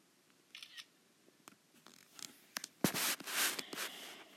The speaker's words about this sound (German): Ich habe gerade das Bild gemacht. Ich hoffe, ihr habt es gehört.